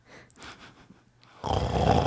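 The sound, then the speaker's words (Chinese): A person demonstrates the snoring of someone sleeping badly, which is a little louder and sometimes intermittent: a few soft, breathy snorts, then a sudden loud, gravelly, growl-like rasp that holds to the end. No words are spoken. “那接下来睡得不顺的打呼声，睡得不顺的打呼声就是会稍微大声一点点，嗯，然后有的时候断断续续，你来示范一下，”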